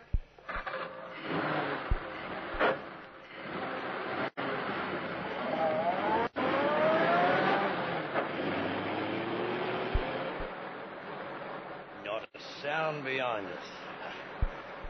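A new car's engine turns over and roars to life after the car is pushed down a road slope at midnight, its pitch climbing as it revs and pulls away, with a steady loud rumble and a few sharp clicks along the way.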